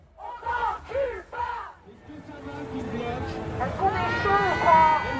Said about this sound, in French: Celle qui hurle dans son mégaphone en tête de cortège,